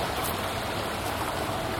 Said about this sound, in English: approached a little river here, and it's very beautiful.